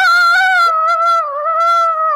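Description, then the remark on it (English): A shrill, high-pitched, banshee-like vocal scream, made on request as a cue for someone to come back, held as one long, loud note for about two seconds, its pitch wavering slightly and dipping near the end, with no talking. “I heard a you, very high pitched noise uh, and assumed that was my cue to come back.”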